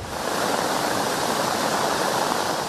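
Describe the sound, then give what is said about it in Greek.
Loud, steady roar of rushing floodwater surging through a torrential stream in Volos, Greece, during Storm Daniel, where heavy rain turned ravines into torrents; a dense continuous wash of churning water with no pauses and no voices. “Ο μεγάλο όγκο βροχή μετέτρεψε σε ορμητικά ποτάμια τι ρεματιέ”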